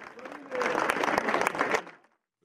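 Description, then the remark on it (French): Residents applaud at the end of a pink memorial march in front of the family home, after the victim's uncle thanked the crowd: a dense patter of many clapping hands that swells after a softer start, holds for over a second, then fades into silence. “Et a été applaudi par les habitants.”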